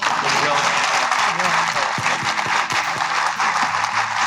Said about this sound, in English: So, ladies and gentlemen, thank you again so much. One more round of applause.